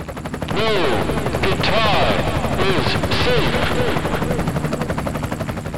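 An electric guitar plays swooping, bent notes over a fast, throbbing rhythmic pulse, loud, a track from a guitarist's new record, with no one talking.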